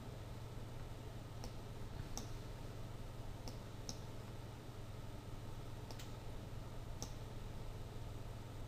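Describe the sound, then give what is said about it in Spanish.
A half-dozen crisp computer mouse clicks at irregular intervals, some in quick pairs, as the selection tool is clicked in a drawing program, soft against a steady low hum and background hiss, with no talking. “Teniendo seleccionada la forma, hago clic en la herramienta selección”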